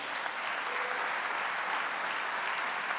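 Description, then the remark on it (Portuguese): An audience applauds the Lord steadily in church, a dense wash of many hands clapping at once, sustained and fairly loud throughout the three seconds with no voices standing out. “Quem está me entendendo, aplauda ao Senhor bem forte.”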